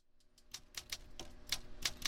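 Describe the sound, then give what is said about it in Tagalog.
Manual typewriter keys clack at a typewriter shop in Quiapo in an uneven, brisk rhythm, about a dozen sharp strikes, some louder than others, with no talking. “May tindahan ng typewriter dito sa Quiapo.”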